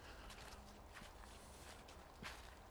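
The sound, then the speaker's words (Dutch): Footsteps walk at an unhurried pace toward the entrance gate at Nienoord, by the National Carriage Museum, a handful of soft, scuffing steps on hard ground over a steady outdoor hum, fairly quiet with one step landing a bit more firmly near the end. “Maar we lopen eerst richting de toegangspoort.”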